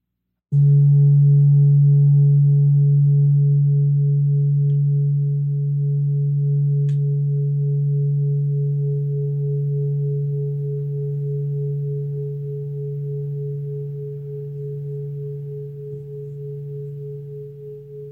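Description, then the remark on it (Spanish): A singing bowl rings out with a steady, humming low tone and faint higher overtones, sustained for many seconds and slowly fading, with no talking over it. “para que disfrutes unos segundos del cuenco con el que vamos a comenzar.”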